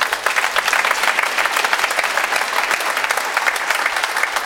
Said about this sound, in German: Ja, kann man erstmal klatschen.